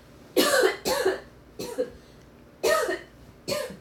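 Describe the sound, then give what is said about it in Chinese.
Someone coughs five times in harsh, breathy bursts, coming in an uneven rhythm with short pauses between them; no one speaks. “然后好想咳嗽，等我一下。”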